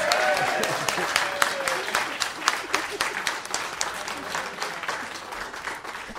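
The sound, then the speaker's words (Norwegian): An audience breaks into steady applause as a vote for a contestant, many hands clapping in a dense, crackling patter that holds at an even level for several seconds, with a few brief voices mixed in underneath. “Vi trenger eh, eh, applaus for eh,”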